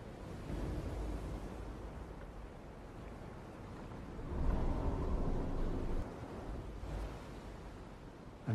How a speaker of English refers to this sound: It's them, and you can just hear the ocean.